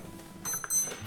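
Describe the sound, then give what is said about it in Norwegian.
A clock's alarm rings as it nears midnight, in two short, bright electronic bursts partway through, fairly quiet and steady-pitched, with no one speaking over it. “går mot midnatt, så da ringer klokka.”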